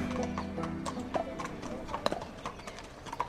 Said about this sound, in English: We're at Arthur Moore's stables. It's a snowy morning in February. Horses are coming in from the fields the warm breath from their nostrils visible in the cold air.